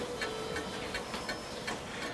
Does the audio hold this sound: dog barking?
no